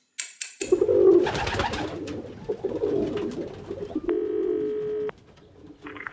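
Pigeons coo in a steady, overlapping stream of low throaty calls, with a brief higher tonal note partway through and a few short clicks at the start.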